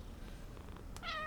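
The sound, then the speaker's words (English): A single short cat meow, tonal with clear harmonics, rising near the end over a low background hum; not loud, no speech. “Specifically, oh, that was my cat.”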